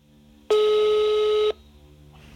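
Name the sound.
telephone call ringing tone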